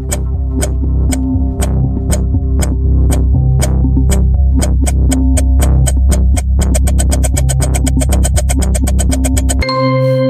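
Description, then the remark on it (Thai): A 10-second quiz countdown timer ticks steadily over a low droning hum, the ticks speeding up toward the end before a sharp buzzer-like tone cuts in as time runs out. No one speaks. “จับเวลา หมดเวลา”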